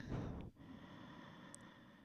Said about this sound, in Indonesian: Ambil nafas panjang dari hidungnya.